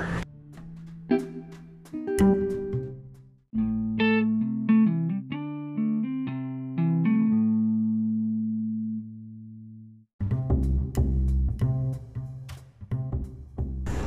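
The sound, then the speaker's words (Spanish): Wrestler Sean Spears's old entrance theme plays: loud instrumental rock with distorted, effects-heavy guitar, opening with punchy hits, easing into a sustained melodic stretch, then crashing back in with heavy drums. No one speaks. “Así que ahí escuchábamos la canción, bueno, la antigua canción de Sean Spears”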